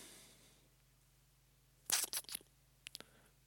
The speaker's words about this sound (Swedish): Okej, okay, vi, vi återkommer till det så håller jag ordning på mina papper.